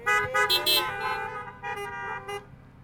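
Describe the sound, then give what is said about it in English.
Several car horns honk in overlapping bursts during a sermon, in answer to the preacher's call for an amen or a horn blow, loud and brassy, with a few short toots and longer blasts layered together for about three seconds. “Give me an amen or a horn blow.”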